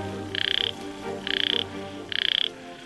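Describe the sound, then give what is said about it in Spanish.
A yellow-legged frog of the Sierras croaks three times at an even pace, each call a short, rapid, rattling trill, clear over a low, steady background hum. “Ranas de Patas Amarillas: Supervivientes de las Sierras”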